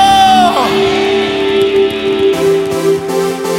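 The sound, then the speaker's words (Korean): An audience at a church service claps and cheers loudly to give thanks and glory to the Lord, with shouts and whoops rising over steady applause and a sustained held tone running underneath for the whole stretch. “우리 주님께 감사와 영광의 박수를 올려드립시다.”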